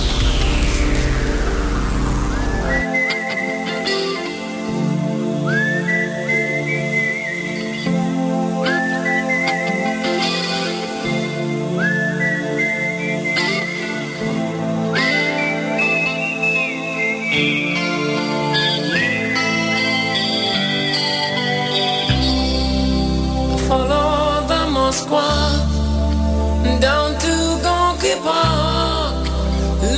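A bright, lilting whistled melody plays in repeated gliding phrases over soft, sustained guitar and bass, before the full rock band swells in louder toward the end.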